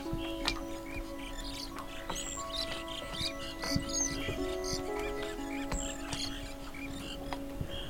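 A colony of small brown birds, sheltering in bushes on a tiny rocky island in the middle of a bay, chirps nonstop, dozens of short overlapping tweets scattered throughout, set against a steady low mechanical hum, with no one talking.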